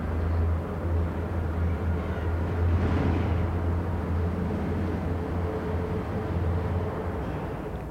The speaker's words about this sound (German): So ziemlich überall, wo du Aufnahmen machst, hörst du ein Flugzeug da kommt auch schon wieder eins.